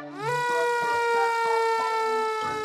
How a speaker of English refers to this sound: Luckily, Flynn and Belle, the fire engines, are always on hand to tackle any fires. Flynn is a bright red fire engine who has a siren that sounds like this.